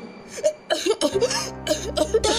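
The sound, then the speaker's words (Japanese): In a drama scene, a run of harsh, repeated coughs comes in quick, uneven bursts after eating taiyaki, fairly loud, while a sustained musical tone swells up underneath partway through. “ここで咳込みますよね”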